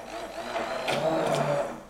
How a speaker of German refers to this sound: Ja, ich lass mich nochmal schnell checken, ob der Mixer geht.